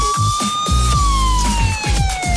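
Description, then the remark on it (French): A short, loud radio jingle introducing a reporter's segment during live coverage of a cycling stage race: a steady siren tone wails and slowly falls in pitch over a driving, rhythmic electronic beat, with no voices. “On va retrouver Arnaud Souk dans un instant après son jingle, évidemment.”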